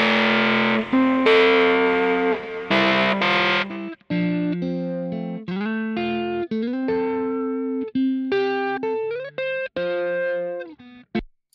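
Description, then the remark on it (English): Heavily distorted electric guitar, reamped through an amp profiler, plays loud, gritty chords for a few seconds, then shifts to a run of sustained single-note riffs, upfront with no voices, ending abruptly. “Now the uh, nasty guitar is on the right.”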